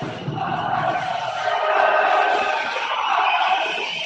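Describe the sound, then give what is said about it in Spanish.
A large arena crowd of basketball fans cheers and chants during a game in a loud, sustained roar that swells slightly midway and holds steady for the full four seconds, with no individual voice standing out. “Ahora la afición de, de, dejándose escuchar.”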